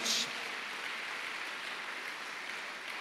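An audience applauding together after a prayer in the name of Jesus, clapping for his presence among them: a dense, steady wash of many hands clapping at once that holds an even level for about three seconds without anyone speaking over it.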